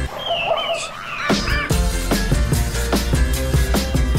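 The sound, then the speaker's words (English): A dog whimpers with thin, high whines, then gives a couple of sharp yelping barks before a bouncy, steady musical beat from a video game soundtrack track takes over and plays on to the end. “Nah, you ain't taking a bath yet, dog.”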